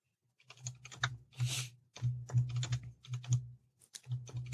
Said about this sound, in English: This is the fun part of the podcast where you just hear me typing.